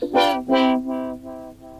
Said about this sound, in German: Ich weiß nicht, ob man dieses Pief, Pief, Pief im Hintergrund hört. Das ist einer der Vögel, der mich heute früh geweckt hat. Und das ist ein sehr monotoner Vogel. Das klingt wie eine Alarmanlage.